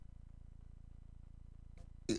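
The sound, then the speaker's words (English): A low steady hum fills most of the stretch, then a faint catch in the throat gives way to one sharp, loud cough right at the end. “Were you coughing before you got here?”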